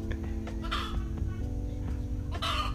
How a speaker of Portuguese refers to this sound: Mano, vê se vocês conseguem ouvir o barulho desse galo cantando aqui, ó.